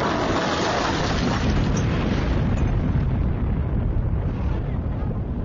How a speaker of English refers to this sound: She barely heard the explosion.